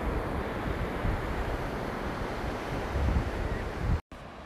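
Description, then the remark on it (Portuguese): A steady roar of ocean waves washing onto a shore, with low rumbling surges and some wind buffeting the microphone. No one speaks, and the sound cuts out for an instant near the end. “Eu curti fazer as gravações aqui olhando para o mar.”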